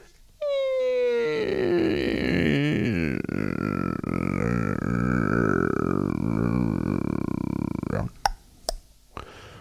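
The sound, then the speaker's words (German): A door creaks open in one long, loud, drawn-out groan lasting several seconds, its pitch wavering and sliding, followed by a few sharp clicks as it settles. “Es klopfte an, die Tür ging auf”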